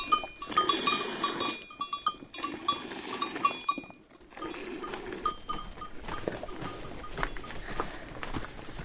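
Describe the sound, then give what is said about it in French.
Goats bleat repeatedly on a farm, their loud, wavering cries overlapping in bursts with a brief lull midway, while small bells clink faintly in the background. “J'ai plutôt l'habitude de prendre un stylo que de traire le chèvres maintenant.”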